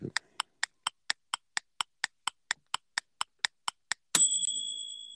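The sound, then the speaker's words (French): A steady run of crisp, evenly spaced ticks, like a countdown timer, ends in a bright, ringing ding that lingers and fades, much like a microwave oven finishing. “Oh, on dirait un bruit de micro-ondes.”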